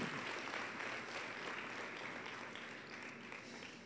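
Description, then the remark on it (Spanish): Sustained audience applause offered to God, a dense wash of many hands clapping at a steady level that eases only slightly toward the end, with no voices standing out above it. “Todas las cosas, sí dale a Él un aplauso, Él lo merece.”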